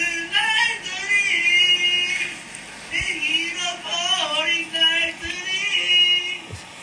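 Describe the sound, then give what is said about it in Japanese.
A neighbor in a hotel sings loudly, heard through the wall and recorded on a voice memo, continuously holding long sustained notes with wavering pitch, clear for the whole stretch with only brief breaths between phrases. “見てこのこの上手な歌これをしかもこれねその荷造りをしてる場所から普通にこのまんま聞こえんだよこの音量でこの思わずボイスメモで録音して別になんか例えばそのその人の部屋の前に行ってこのつけてとかじゃなくてね”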